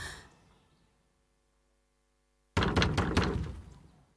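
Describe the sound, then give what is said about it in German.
After a quiet pause, someone pounds hard on a wooden door, demanding a woman open it to collect her husband's debts: four or five loud, rapid knocks in a burst, with no voices. “Weib, mach die Tür auf!”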